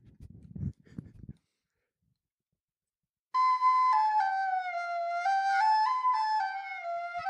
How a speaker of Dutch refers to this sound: Ik ga nu even met mijn fluit spelen. Ik ga daarvoor mijn micro tussen mijn benen steken.